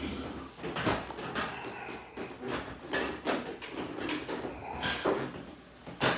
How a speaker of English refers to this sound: Set this fucking sick chair here in Lacey's Bay. Let's kick this back a little bit here.